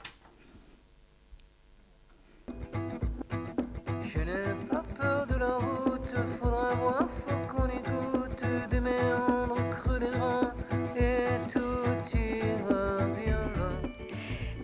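After a couple of seconds of near silence, a male rock singer comes in over a steady, strummed band arrangement with a regular beat, singing a melodic line that stays loud and even throughout.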